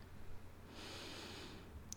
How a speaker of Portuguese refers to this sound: Respirando fundo, inspire